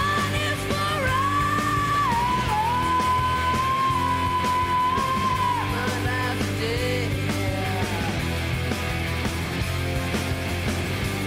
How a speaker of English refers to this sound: That's my favorite part. Yes. That scream is fucking so powerful. It's jarring.